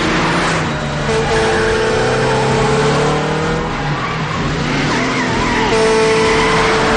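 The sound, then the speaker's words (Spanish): A loud car chase: engines roar and rev continuously while tires squeal in long, sustained high-pitched screeches as the lead car takes a very sharp curve and moves to overtake a tractor-trailer on the next curve, with no talking. “El primero de los coches toma una curva muy cerrada y se pone a adelantar a un tráiler en la siguiente curva.”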